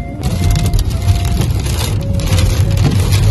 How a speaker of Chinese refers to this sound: 因为长江边又是刮风又是下雨还闪电